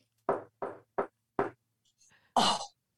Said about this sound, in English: And it could be something like, What's that knock at the door?